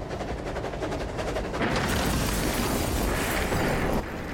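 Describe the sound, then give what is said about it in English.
Two trains, throttles opened and engineers having jumped off, slam together head-on before a crowd in the stands: a fast, rhythmic clatter gives way to a sudden, loud, roaring crash that splinters cars and sends up smoke and debris, rumbling and crackling for a couple of seconds before abruptly ending. No voices. “With a tremendous roar, the trains crashed, sending up a cloud of smoke and debris.”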